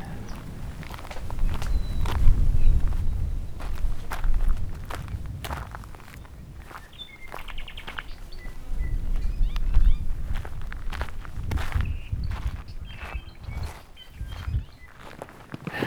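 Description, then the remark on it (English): Steady footsteps crunch across rough, gravelly ground on a trail across the floor of a volcanic crater beside Kilauea, marked by lava cairns, in an uneven walking rhythm, with a low rumble of wind or movement underneath and occasional brief scrapes. “We survived the march across the bottom of the crater.”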